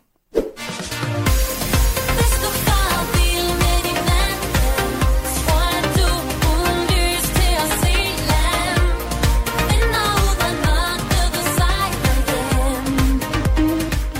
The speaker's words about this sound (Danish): det næste nummer, det er et nummer, som ingen vil tro, du elsker. Det lyder sådan her.